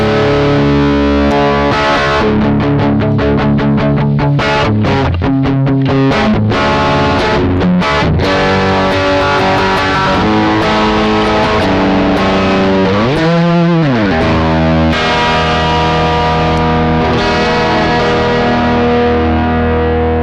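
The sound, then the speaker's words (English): Heavily overdriven electric guitar through a pedal with the drive maxed, thick fuzzy distortion on chugging riffs and sustained chords, loud throughout with no talking. “All right, we're gonna turn the drive all the way up because that's where all the fun is.”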